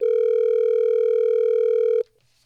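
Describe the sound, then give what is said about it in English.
A steady, loud telephone dial tone hums continuously for about two seconds while a call is being placed, then cuts off abruptly, leaving near silence. “Are you ready for us to get her on the phone”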